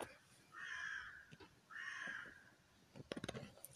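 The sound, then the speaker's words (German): Two loud, harsh raven caws ring out one after the other, each drawn out for almost a second, followed by a few brief clicking knocks at the end. “Ja, herzlich willkommen, Raben.”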